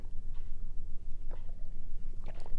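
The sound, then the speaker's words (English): Soft sips of matcha green cacao tea from a cup, a few brief slurping bursts spaced about a second apart over a low, steady background rumble, with no one talking. “I'm taking a sip of my matcha green cacao tea with you right now because that's what I'm having to do this podcast.”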